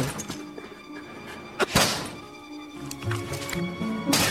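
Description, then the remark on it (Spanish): A man dressed as a police officer strikes a glass pane and partially damages it: a sharp thunk against the glass, a hard strike with a brief crackling edge, followed by faint scraping and shuffling sounds; no voices. “El falso policía golpea el vidrio y lo daña parcialmente.”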